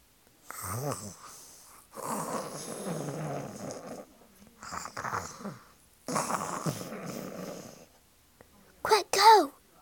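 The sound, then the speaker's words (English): A voice imitates the deep, exaggerated snoring of a giant who has sat down and fallen asleep: four long rumbling, rasping snores with pauses between, fairly loud, ending in a short snorting, wheezy burst. “The giant sat down, closed his eyes, and began to snore.”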